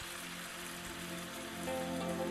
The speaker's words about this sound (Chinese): 今天早上，冒险鸡是被洒落在帐篷上的雨声吵醒的。